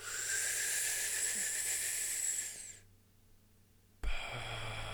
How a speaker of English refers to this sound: Let's take some deep breaths. Put your hands over your heart and let's breathe right into the heart space.